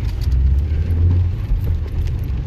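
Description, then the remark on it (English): A large car rumbles by outside, its deep, muffled engine drone holding steady and fairly loud for a couple of seconds with no voices. “Listen, if you can't drive them big cars, love, don't fucking drive them.”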